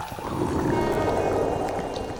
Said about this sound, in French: Euh, vous avez pas entendu un truc Ouais, ça va, je sais, c'est mon ventre. J'ai une putain de faim de louche.